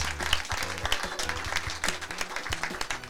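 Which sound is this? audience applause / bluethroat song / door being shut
audience applause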